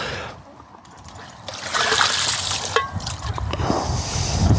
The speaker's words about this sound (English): Let's just quickly empty out that water pot and let it refill.